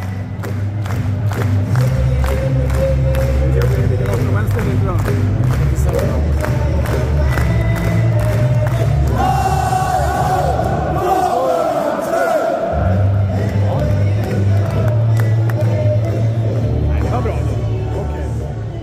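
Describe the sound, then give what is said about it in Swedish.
A huge football stadium crowd at a Wolverhampton match roars and chants together in a loud, continuous wall of voices, with rhythmic bursts of shouting and cheering rising and falling over nearly twenty seconds. “Ehm, men jag tycker att vi kan lyssna på High Hove Wolverhampton hur det faktiskt lät.”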